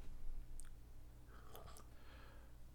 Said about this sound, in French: Ouais. Excuse-moi, je prenais une gorgée.